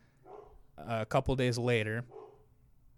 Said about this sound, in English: excuse the dog barking, guys.